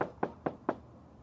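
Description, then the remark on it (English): Four sharp knocks on a door in a quick, even rhythm, fairly loud, with no voices, followed by a brief quiet pause. “I love, I love the fact that you can actually knock on the door here.”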